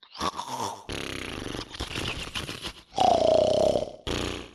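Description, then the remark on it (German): A voice imitates two snoring, frog-like bullywug creatures on top of a tower in several loud, rough, gurgling bursts, with one drawn-out croaky snore near the end. “Zwei schnarchende Bulliwuchs oben auf dem Turm.”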